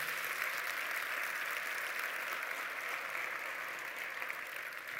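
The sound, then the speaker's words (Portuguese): An audience applauds Jesus steadily, a dense continuous wash of many hands clapping at an even level for the whole stretch, with no voices standing out. “Pode aplaudir Jesus mesmo, é bom demais.”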